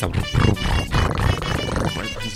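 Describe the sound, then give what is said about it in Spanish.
Someone imitates a cat purring with their voice: a rough, throaty rumble that pulses steadily for about two seconds, fairly loud and unbroken, with no words spoken. “Un ronroneo de...”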